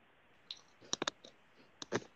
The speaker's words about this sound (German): Nein, ich habe über äh, ich hab, bin mit dem Fingernagel übers Tablet gegangen. Das war ein nervtötendes Geräusch.